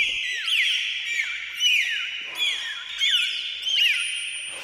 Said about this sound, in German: Delfine benutzen Pfeiftöne und schnelle pulsierende Laute, um untereinander zu kommunizieren.